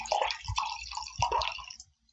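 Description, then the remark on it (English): Wine labeled The Prophecy pours steadily into a glass for nearly two seconds, with a gurgling, splashing texture that thins out and stops; no one talks during the pour. “Would you like to pour me some side?”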